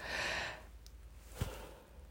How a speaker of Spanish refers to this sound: Perdón, realmente no tengo sueño, no sé por qué estoy bostezando.